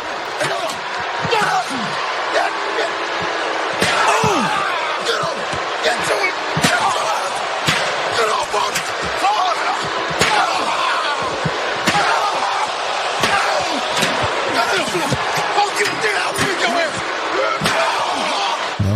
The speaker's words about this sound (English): He goes more chair crazy. Yeah, uh, it keeps going. You get the idea. He fucks him up with the chair. He beat the shit out of him.